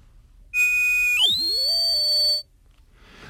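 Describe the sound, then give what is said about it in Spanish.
A steady electronic pure-wave tone holds, then sweeps sharply downward and glides back up to a new pitch, sounding loud for about two seconds before cutting off abruptly. “Es una onda pura, es un sonido perfecto y su frecuencia es la que marca su tono.”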